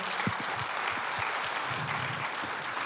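An audience applauds steadily to welcome a brother who will share the word that morning, a dense wash of many hands clapping at an even loudness throughout, with a few low voices faintly mixed underneath.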